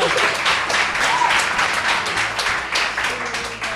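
An audience applauds steadily, many hands clapping in a dense, continuous wash that stays fairly loud throughout, with no one speaking over it.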